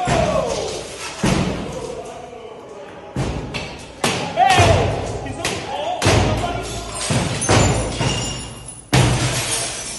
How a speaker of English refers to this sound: you can already hear the smashing. So right now they're smashing up against doors. And there's them shattering the glass.